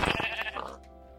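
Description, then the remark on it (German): A single sheep bleats, a brief wavering cry that tapers off after about half a second, leaving a quiet background. “Ein schwarzes Schaf.”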